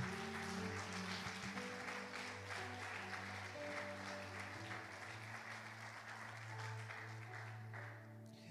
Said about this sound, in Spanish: Dale un aplauso a Jesús con todo tu corazón.